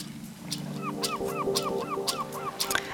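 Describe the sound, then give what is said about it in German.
Seagulls call over and over in a quick, steady rhythm, their harsh, honking cries loud, with a constant background rush underneath and no talking. “Hört ihr es, Möwen? Man kann den Strand fast riechen.”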